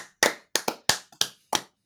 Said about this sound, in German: Wir wollten noch füreinander klatschen.